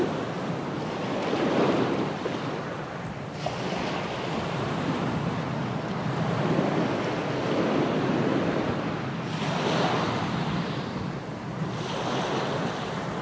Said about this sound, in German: Ich schließe meine Augen und lausche dem Rauschen des Meeres.